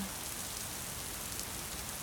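Light rain pattering steadily with a soft, even hiss of many small drops, gentle and continuous with no talking.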